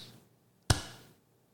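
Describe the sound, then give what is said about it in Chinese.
A single sharp hand clap rings out on its own, made to imitate a ghostly clap: one sudden loud crack with a brief fading tail, then quiet. “鬼在拍手，我们两个在拍手，怎么发现有三个拍手的声音呢？而且声音是这样。”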